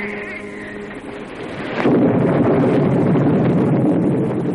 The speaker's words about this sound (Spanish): Más tarde estalla una tormenta.